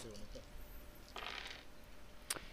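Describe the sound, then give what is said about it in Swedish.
Dice clatter across a tabletop in a brief rattling burst, rolled for a shooting attempt in a game and landing on a six and a one, followed by a single sharp click as they settle, with faint low background murmur. “Eh, en sexa, en etta.”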